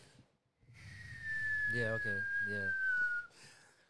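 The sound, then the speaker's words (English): A person whistles a long, steady high tone that slowly glides downward for about two seconds, imitating a mortar shell coming down after being fired, while another voice briefly talks over it. “And those mortars, when the motherfucker a mile away drops the mortar, boom, boop, and it hits, it explodes, it goes into the air. It starts to come down, it makes that sound.”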